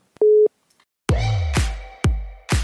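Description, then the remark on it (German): A phone line tone during a test call: one short, steady low beep, then a pause, followed by a loud, harsh, buzzing tone repeating about every half second, with no voices. “Warte, ich will noch einmal kurz bei dir testanrufmäßig machen.”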